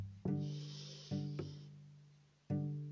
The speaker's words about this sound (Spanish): Enséñale a tu niño a respirar pausado y tranquilo antes de comenzar De este modo una inhalación profunda.